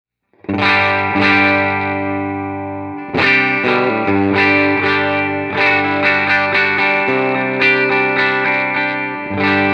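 A clean electric guitar with signature humbucker pickups plays full, ringing chords, several strums spaced across the passage with each letting notes sustain, fairly loud, with no voices.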